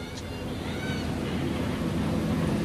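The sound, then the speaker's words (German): A steady, droning rumble of a helicopter circling around a tower about to be blasted for demolition, just after 10 o'clock, heavy and continuous with a broad whooshing wash that swells slightly louder over the few seconds, with no voices. “Der Hubschrauber kreist auch noch um den Turm schon knapp eine Minute nach 10 Uhr.”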